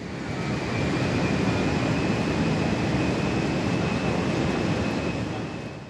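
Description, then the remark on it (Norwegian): A loud, steady roar of an airplane taking off on a night flight bound for the Mediterranean, a dense engine rumble with a faint high whine running through it, swelling in and easing off at the end with no voices. “Snart forsvinner rullebanen, trærne, flyplassen.”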